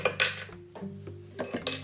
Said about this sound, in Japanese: で今回いただくお酒はですね、うん、えー黒ビールギネスギネスこれは素晴らしい、はい、スタウトですねこれを飲んでいきましょう高級なよし開けてね開きます